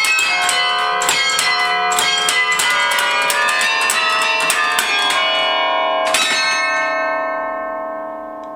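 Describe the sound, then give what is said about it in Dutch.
Loud, ringing carillon bells of the Domtoren play the automatic quarter-hour chime at a constant forte, a rapid run of evenly struck notes that overlap and sustain, ending with a final strike that fades slowly; no voices. “Dus het verschil tussen een automaat en uh, handspel is uh, dat de automaat speelt altijd even hard.”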